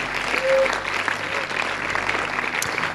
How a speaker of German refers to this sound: Lasst uns Marc mal einen Applaus geben für seine ermutigende Predigt.